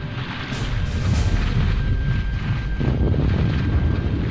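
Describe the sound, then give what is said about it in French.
A deafening, continuous rumble of volcanic explosions growing ever more violent, heavy low roaring that never lets up, with a few sharper bursts surging through the din, at sunset on an ash-covered path heading toward Elfell. No voices are heard. “Les explosions continuent, de plus en plus violentes. Le bruit est assourdissant, impossible de se parler.”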